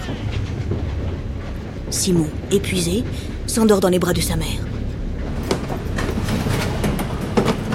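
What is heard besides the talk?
train rolling on rails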